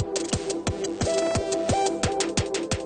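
A pet bird calls with low, steady cooing tones, moderately loud, over a regular series of sharp clicking taps about three per second.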